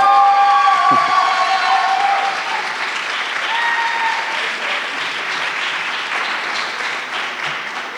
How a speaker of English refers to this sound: So without further ado, again, big round of applause, big cheers.